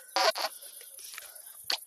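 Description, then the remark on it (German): Crickets chirp in a steady, high-pitched drone throughout, outdoors in a garden by a back door, with several short, louder bursts of noise rising over them at irregular moments. “So Leute, hier sind die Grillen sehr laut.”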